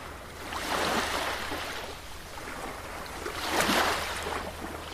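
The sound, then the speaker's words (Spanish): Sea waves wash in and break on a beach, with broad hissing surges swelling around the first and fourth seconds over a steady low rumble. No voices. “Allí, el susurro entra por esa ventana. Es el mar. Y suena. Suena así,”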